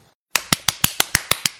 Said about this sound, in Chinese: 为咱们的伟大事业鼓鼓掌，呱唧呱唧。